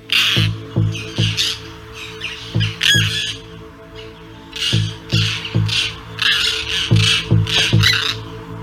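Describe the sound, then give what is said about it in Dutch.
Harsh, grating calls of rare terns, including a whiskered tern, at the Steenwaard near Steenwijk, repeat in irregular bursts, fairly loud, several birds seemingly calling over one another with brief pauses between flurries. “En in Steenwijk zijn zeer zeldzame sterns gesignaleerd.”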